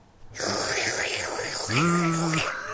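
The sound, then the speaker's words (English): A voice imitates a vacuum cleaner: a steady breathy roar starts abruptly and holds for over two seconds, with a rising hummed whine joining near the end. It is fairly loud. “Um, somebody make a vacuum noise really quick.”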